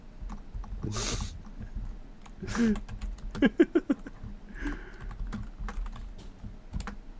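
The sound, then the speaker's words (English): Rapid, uneven clacking of keys on a computer keyboard, with bursts of keystrokes mixed with a few breathy noises and a murmured voice in the background. “Why is it typing backwards?”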